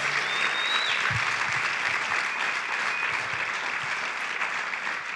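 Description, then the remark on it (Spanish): A large group claps steadily in sustained, dense applause given as an offering to the Lord, loud, filling the whole stretch, with no one speaking over it. “Eh, démosle una ofrenda de palmas.”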